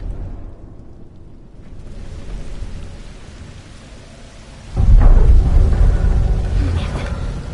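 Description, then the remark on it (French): A low, steady rumble builds, then suddenly swells into a loud, deep structural groaning with crackling and creaking that carries on to the end, as if a building were giving way. No voices. “On dirait que tout le bâtiment est sur le point de s'écrouler.”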